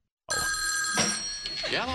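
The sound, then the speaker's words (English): A telephone rings on the Farah and Farah phone line of a Jacksonville radio show on 1010XL and 92.5 FM, with a loud, sustained, bright bell tone that starts abruptly and carries on steadily, and a voice begins speaking over it near the end. “Another interview on the Farah and Farah phone line, brought to you by the accident attorneys at Farah and Farah.”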